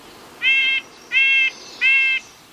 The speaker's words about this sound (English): We're hearing a house wren, a black capped chickadee and red-breasted nuthatch.